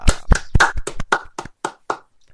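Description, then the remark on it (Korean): Celebratory clapping: about ten sharp hand claps in a quick, slightly uneven run, loud at first and tapering off over two seconds, with no voices. “예, 축 박수.”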